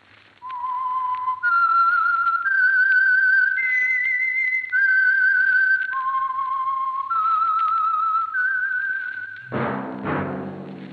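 A clear, sustained whistled melody of long held notes stepping up and down in pitch, the signature whistle of the mystery program The Whistler (the Signal Oil Program), played alone for about nine seconds before a brief burst of orchestral music enters at the end.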